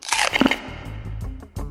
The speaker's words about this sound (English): Have you ever wondered what it's like to bite into Nerds gummy clusters? They're fruity. They're tangy. They're gummy. And they're crunchy.